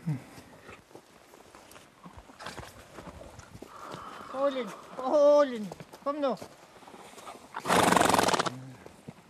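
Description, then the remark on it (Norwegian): A horse on a farm whinnies several times in loud, wavering neighs while hooves clop steadily, with a man speaking briefly and a sharp burst of noise near the end. “Det er vel den siste hesten på gården, dette.”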